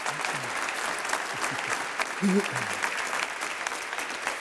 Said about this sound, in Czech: Chtěl bys potlesk? No, děkuji. děkuji.